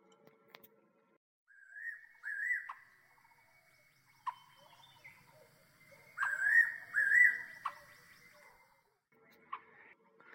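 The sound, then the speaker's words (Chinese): Birds chirp at dawn as the first sunlight falls, in short, clear whistled phrases with rising and falling pitch, coming in a few scattered bursts separated by quiet gaps, along with occasional sharp ticks. No one speaks. “当清晨的第一缕阳光洒向大地，所有的鸟儿都为了迎接新的一天而欢呼雀跃。”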